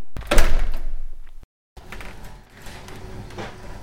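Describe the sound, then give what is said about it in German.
A door is opened, with a handle clack and a heavy thunk and rattle, then a brief silence followed by a quieter scraping and shuffling movement. “Wir öffnen die Tür.”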